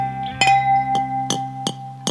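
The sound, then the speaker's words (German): Drinking glasses with silver rims clink together five times in a loose, uneven rhythm, each tap bright, leaving a clear ringing tone that hangs on between the strikes. “sind das sind die wunderschönen Gläser mit Silberrand von meiner Oma Else”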